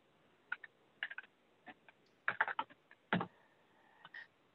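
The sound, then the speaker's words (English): Typing on a computer keyboard into a chat: irregular bursts of quick, soft key clicks with short pauses between them, fairly quiet, with no talking. “I am typing this in the chat if anybody want to download it or copy it.”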